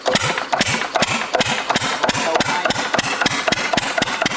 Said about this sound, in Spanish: Es una madrugada fría. A lo lejos se ve cómo se esparce el humo de la chimenea de la ramada. De repente el sonido de un motor le roba la calma a las montañas.